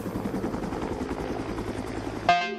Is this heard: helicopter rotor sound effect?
yes